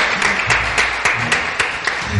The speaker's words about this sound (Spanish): Oye, un aplauso. Venga, de los que estamos aquí, que somos pocos dentro, pero yo creo un aplauso para estas reinas.